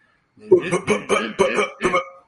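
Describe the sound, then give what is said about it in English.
A man's voice imitates a motorcycle engine that won't start, making five or so sputtering, choppy bursts in quick rhythm, fairly loud, with no actual engine present. He is imitating his motorcycle being cranked after it has sat unused for four months. “And then i look up and it's been four months since I even started it. When I go out there and crank it,”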